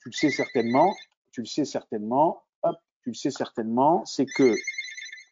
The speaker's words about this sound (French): ah, mais pourquoi ça ne, voilà, euh, c'est mon téléphone euh, fixe.